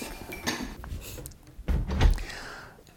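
A carbonated, mint-flavoured birch sap drink called Bee-Tree is poured into black glasses, with soft clinks and knocks of glassware followed by a louder fizzing, splashing rush, then a gentle hiss as it settles.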